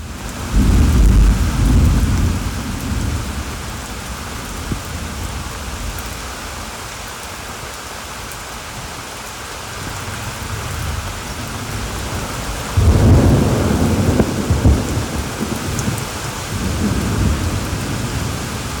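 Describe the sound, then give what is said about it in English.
Steady rain hisses throughout a storm in the Ozarks, recorded from a screened porch by a lake, while deep thunder rumbles roll in low and heavy, a strong peal near the start and another swelling later, with no voices. “hear the rain, you hear the thunder.”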